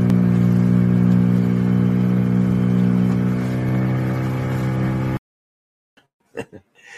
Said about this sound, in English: and that was the boat zipping over to uh, Zanzibar Island.